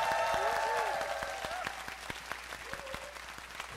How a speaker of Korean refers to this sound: 밴드에게 큰 박수를 부탁드립니다. 감사합니다.